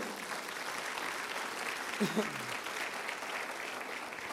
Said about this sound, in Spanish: Apláudele fuerte al Señor, amén.